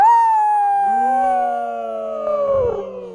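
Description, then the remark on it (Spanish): A person imitates a coyote howl with a single long, wavering tone that slowly drops in pitch, loud, with a brief rustle near the end. “Porque si le preguntas al, coyote, ¿cuándo te bañaste la última vez? Dijo,”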